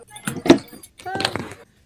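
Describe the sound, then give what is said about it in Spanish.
Keys jangle and clatter in two bursts, metallic, with door-handling knocks mixed in, picked up through a call participant's unmuted microphone. “Mutea tu micrófono, por favor, porque está, la puerta todo Lo vamos a tener que silenciar.”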